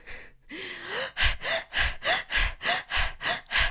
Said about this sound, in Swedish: Och det man gör då är att man, man står upp och så andas man djupt och snabbt med munnen. Man ska verkligen flåsa, ungefär som att man har sprungit upp för en trappa. Och så göra det i 90 sekunder.